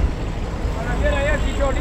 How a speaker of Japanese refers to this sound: すげえバスが通ってるんですけど